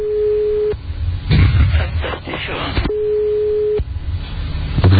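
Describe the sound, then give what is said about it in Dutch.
A telephone ringback tone purrs twice, each a steady mid-pitched beep under a second long, separated by a long pause filled with muffled background noise and faint voices, as the call goes unanswered. “neemt verder niemand op.”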